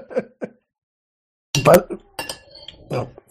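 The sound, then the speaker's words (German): Cutlery clinks and scrapes against dishes in short, bright bursts while someone eats, a few sharp metallic taps early on followed by a busier cluster of clatter with faint voices mixed in. “Wer ist da eigentlich im Hintergrund? Das ist ein bisschen anstrengend. Die ganze Zeit. Ich, ja, esse gerade noch, ja.”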